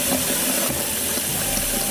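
A steady, full rush of running water, like a tap or stream pouring continuously, loud with a broad hissing texture and no voices.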